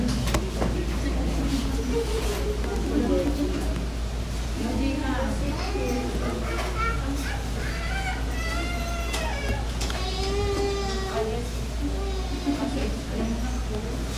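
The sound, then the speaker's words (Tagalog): A young child squeals and babbles noisily in short, high-pitched bursts with rising and falling pitch during a church prayer gathering, over a steady low hum that runs throughout. “Pwede pong merong mag-assist sa ano, bata para na ano, hindi siya masyadong ano, maingay.”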